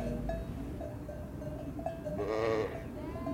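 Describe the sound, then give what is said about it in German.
A ewe gives one long, wavering bleat, calling for her lamb, over a steady murmur of farmyard noise with soft clinks like a cowbell. “So typische Mutter-Lamm-Rufe sind eher so.”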